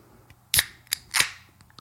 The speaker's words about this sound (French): Ah, on, va, peut-être même l'entendre. Ah, on fait un SMR de canette, là, c'est le temps.